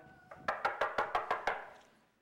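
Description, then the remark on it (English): A rapid, even series of about six or seven sharp knocks on a door, fairly loud, each rap ringing briefly before the next, with no one speaking. “So he goes in, he knocks on the door.”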